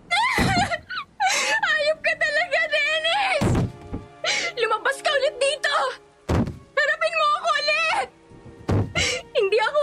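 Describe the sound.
Heavy, loud thuds pound on the rotten wooden door of a decaying house during a rainstorm, about four separate blows spaced a few seconds apart, while a voice wails and sobs almost continuously between and over the hits.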